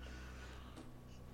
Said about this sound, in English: I bless you.